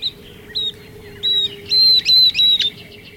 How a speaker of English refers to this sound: That's a northern beardless tyrannulet singing, a tiny flycatcher with a very distinctive voice.